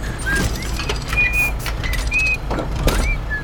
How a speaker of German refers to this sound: Da kam ein ebenso gelber Vogel herangeflattert und beäugte sie interessiert. Verzeihen Sie, meine Werteste, aber für einen Vogel pfeifen Sie ziemlich schief. Na, ich bin ja auch kein Vogel, sondern eine Schnellumbaumaschine.